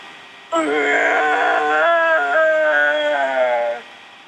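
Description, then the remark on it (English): A person imitates a T-Rex roar: one loud, sustained vocal cry lasting over three seconds, strained and wavering, with the pitch dropping slightly toward the end before it cuts off. “I can't do a great T-Rex. But still, we get the idea.”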